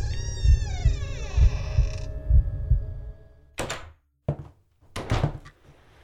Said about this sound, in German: Das rostige Quietschen er schien mir lauter zu sein als das Pulsieren meines Blutes, das mir durch die Ohren rauschte. Und mit einem lauten Knarren öffnete sich die Tür nach innen.